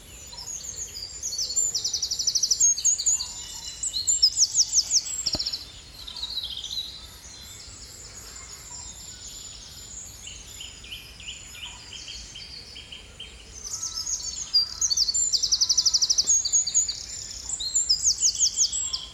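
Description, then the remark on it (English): A busy dawn chorus of crows, herons, wrens and cranes calling over one another, layered chirps and calls swelling in bursts and easing off, with no talking. “crows mixed with herons, mixed with wrens, mixed with cranes.”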